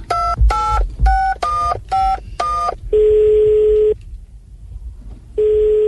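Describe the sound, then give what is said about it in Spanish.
Six quick, loud touch-tone beeps as a phone number is dialed, followed by a longer steady ringing tone, a brief pause, and the tone starting again. No one speaks. “¿por qué no le, no le marcamos a ver qué está pasando?”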